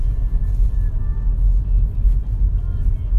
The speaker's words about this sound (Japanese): 我々はね、まあ今、車に乗ってるわけですけども